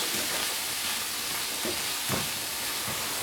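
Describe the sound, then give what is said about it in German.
The water from a tin can pours steadily out through its lid, which is partly cut open with a can opener and held back with a finger, until nothing more comes. It makes a continuous hissing splash with a few soft gurgles and glugs along the way. No one speaks. “Dann den Deckel ein bisschen festhalten mit einer Hand, also mit einem Finger und dann gießen, bis nichts mehr kommt.”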